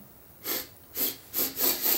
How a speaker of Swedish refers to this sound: Jag sitter ofta och snörvlar har jag tänkt på. När jag lyssnar i efterhand. Men nu börjar det bli sommar ute så kanske vi kan slippa det.